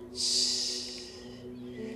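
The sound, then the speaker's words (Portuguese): A long, deep inhalation drawn in through the nose, a soft hissing airflow that swells quickly and then tapers off over about a second and a half, with a low steady hum beneath. “Então, intencionalmente agora, comece a respirar um pouco mais comprido pelo nariz.”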